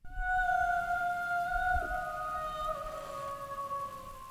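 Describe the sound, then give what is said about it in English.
A wordless, siren-like sung call in a song, played through laptop speakers, holds a long, steady high note that dips slightly in pitch near the end, clear and fairly loud over a faint low rumble. “So you can hear the siren in the song.”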